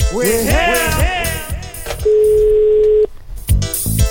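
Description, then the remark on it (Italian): A single steady telephone ringback tone on an outgoing phone call, one flat mid-pitched beep lasting about a second, heard after a stretch of voices, with more voice sounds resuming once it stops. “Sentiamo se risponde, speriamo, eh.”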